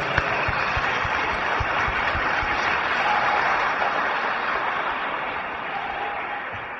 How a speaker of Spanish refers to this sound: Para empezar con la plática les pido un fuerte aplauso.